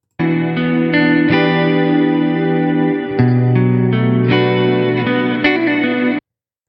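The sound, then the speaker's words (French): A sustained instrument tone washed in a lush, shimmering chorus-like reverb, with chord changes every second or so, loud and steady for about six seconds before cutting off abruptly. “Eh, c'était bien ou pas vous a plu C'était fou, hein On dirait presque un chorus, le truc.”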